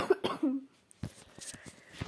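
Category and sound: human body sound, coughing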